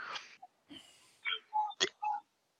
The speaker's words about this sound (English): I'm sorry, I burped into the microphone, audience. I just forgot to mute.